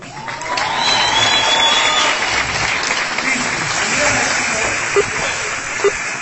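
A crowd claps steadily in a dense, hissing wash of applause that holds for several seconds, with a couple of sharper claps popping out near the end.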